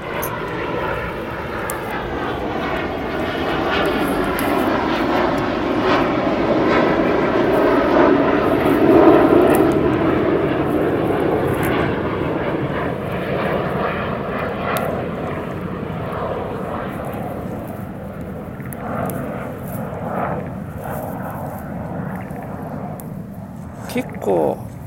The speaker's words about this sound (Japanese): 音入るよねうるさいっすよねこれねうちの近くにというか隣の新富町にニュータバル基地っていう基地があるんで、まあ、今の要は戦闘機ですよ戦闘機がうちではよく飛ぶんですねうちの近くではなかなかのうるささですよこれ